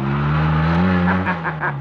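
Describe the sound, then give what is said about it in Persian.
A three-wheeled sidecar motorcycle engine drones steadily, its low buzzing note wavering slightly as the vehicle pulls away, heading out of Paris toward the countryside. There is no talking. “ادگار گربه ها و موش کوچولو رو در یه سبد گذاشت و مخفیانه اونها رو همونطور که در کتاب میبینین در کنار اتاقک موتورسیکلت سهچرخش گذاشت و پس از اون به طرف بیابونهای خارج شهر پاریس برافت”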